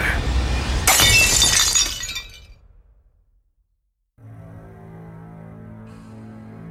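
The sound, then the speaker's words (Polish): A loud crash of a large glass vase, flying through the air toward a young man's face, shattering, its bright tinkling debris fading over about two seconds, followed by a brief silence and then a low, sustained musical drone. “Chłopak gwałtownie odwrócił się i dostrzegł jedynie duży, szklany wazon lecący w powietrzu w kierunku jego twarzy.”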